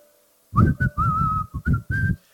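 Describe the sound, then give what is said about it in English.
A man whistles a loud, bright tune in several short phrases while coming to work from the street, the notes bending and sliding in pitch, clear with no talking. “Anytime he's coming to work, we would know he was around because right from the street, you start hearing him whistle. And it's loud.”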